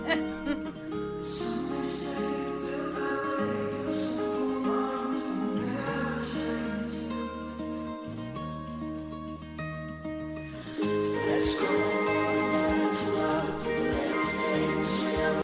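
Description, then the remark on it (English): A gentle, commercial-style instrumental song plays on its own, with sustained chords over a moving bassline, swelling fuller and brighter in its final few seconds. “This is a song that you would hear in the background of a tampon commercial.”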